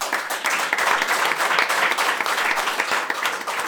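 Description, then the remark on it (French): Sustained applause from an audience for volunteers after their presentation fills the whole stretch, a dense, steady wash of many hands clapping at once, loud, without any talking. “Merci, on peut les applaudir encore.”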